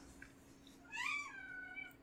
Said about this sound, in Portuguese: Deve ter quatro gatos é. lá agora, ou três.